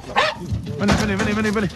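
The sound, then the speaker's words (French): A pack of hunting dogs barks and bays, a short yelp followed by a longer stretch of overlapping, drawn-out cries that stay fairly loud throughout, as the dogs are released to flush wild boar out of the small woods where they have taken refuge. “Alors, pour déloger les sangliers des petits bois où ils se sont réfugiés, on lâche les chiens.”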